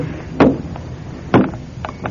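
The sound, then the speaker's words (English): A chair being moved across the floor to a spot by the window: two solid wooden knocks about a second apart, then a couple of lighter bumps, with no talking. “Now, now the whole thing goes up into the chair will move the chair here by the window.”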